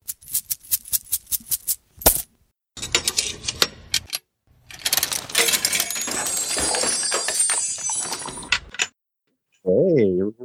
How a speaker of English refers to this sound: oh, I'm fondling that bag of coins right now.